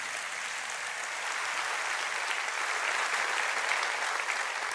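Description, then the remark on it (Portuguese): A sustained round of audience applause at a conference, many hands clapping densely and steadily, swelling slightly after the first second and holding at a fairly loud level throughout, with no talking. “Eu quero é, saudar com uma salva de palmas, né?”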